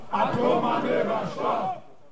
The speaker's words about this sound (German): der Protestmarsch in Nörvenich nähert sich dem Fliegerhorst.